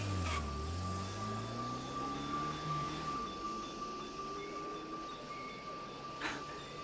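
A taxi's engine revs as it pulls away, its pitch climbing over the first few seconds, then it merges into a steady hum of surrounding traffic, with another vehicle whooshing past near the end.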